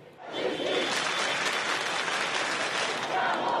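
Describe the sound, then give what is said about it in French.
A large crowd of marchers in a march toward the Hauts-de-Seine prefecture claps together in rhythm after a minute of silence in tribute to Naël, near the site of the incident. It is a dense, steady roar of hands that swells in within the first half second and stays loud and even to the end. “À l'approche du lieu de l'incident, la foule respecte une minute de silence en hommage à Naël, puis applaudit en rythme avant de reprendre la marche.”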